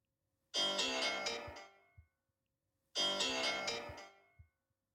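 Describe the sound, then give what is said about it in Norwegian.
A mobile phone ringtone plays twice, each burst a bright, rich musical phrase about a second and a half long, separated by a short pause, heard clearly with no talking. “Ja, det er ringtonen min da”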